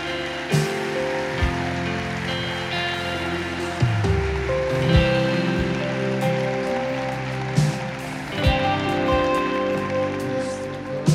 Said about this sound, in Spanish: Dale un aplauso fuerte al Señor.